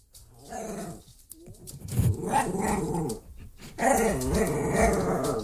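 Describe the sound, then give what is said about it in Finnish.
A small dog, something like a chihuahua, growls steadily, a rumbling snarl that rises and falls over several seconds with brief pauses, no voices present. “Tämä on jotain chihuahuaosta.”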